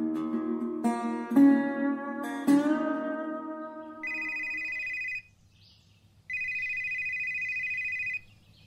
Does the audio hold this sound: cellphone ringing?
yes